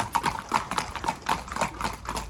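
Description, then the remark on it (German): A steady stream of hoofbeats from a long string of about 16 or 17 ridden racehorses clip-clopping past, the overlapping strikes forming an uneven, continuous rhythm with no voices. “denn das Lot ist riesengroß. Herr Henk, man hat das Gefühl, das hört gar nicht auf.”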